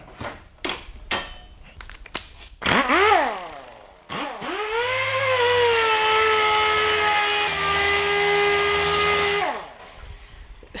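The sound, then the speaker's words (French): Metal tools clink and clatter as someone in a workshop rummages through them for the right wrench, a quick burst of knocks before the loud, steady mechanical whine of an air compressor for a pneumatic sander rises and drones for several seconds. “Voilà, je vais préparer la ponceuse, changer le raccord, trouver la bonne clé.”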